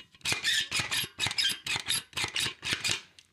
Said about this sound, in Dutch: Dat is heel irritant voor de microfoon. Of ja, lekker. Maakt niet uit. Ik zal ook het geluid even van het piepen laten horen voor ja, de mensen.